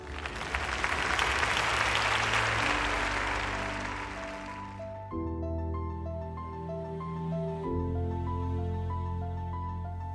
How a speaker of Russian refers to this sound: я ухожу и слышу громкие аплодисменты и вызовы. Дрожа, но уже не от робости, а от счастья, я вышла раскланяться с публикой. Мне единодушно хлопали.